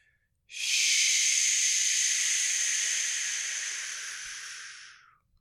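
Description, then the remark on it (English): A long, steady breathy hiss of air pushed out slowly through the mouth during a breathing meditation, about five seconds, loud, imitating the wash of sea waves before fading out. “as we meditate like Neptune, we make the sound of the sea on our exhale”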